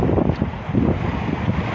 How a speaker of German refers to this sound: Ich bin hier gerade erstmal auf der Terrasse, wo windgeschützt ist. Aber guck, vielleicht merkt ihr das, wenn ich jetzt hier hingehe. Hier ist mir Wind geschützt. Und wenn ich jetzt wieder dahin laufe, dann ist alles wieder sofort irgendwie.